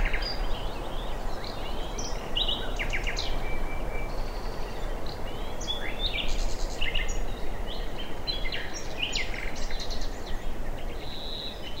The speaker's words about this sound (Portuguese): vastos jardins coloridos por flores e uma enorme variedade de árvores que cercam o palácio. Os pássaros cantam alegremente nos galhos